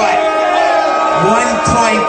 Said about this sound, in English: Here's why I love when you guys boo me, right? I want you to keep booing me